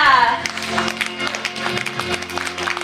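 An audience breaks into steady, dense applause after someone pledges to support 101 children in a voluntary charity donation drive. The applause lasts a few seconds, with many overlapping claps over a low, sustained hum and a brief falling tone at the very start.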